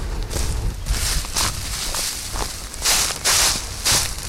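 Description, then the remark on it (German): Footsteps crunch steadily along a forest floor in Saxon Switzerland, walking with the national park spokesperson, in an even walking rhythm with soft rustling of leaves and twigs underfoot. No one speaks. “Ich bin auf dem Weg mit dem Nationalparksprecher durch sein Revier in der sächsischen Schweiz und ich höre von ihm, wie versucht wird, jeder Zündelei Einhalt zu gebieten.”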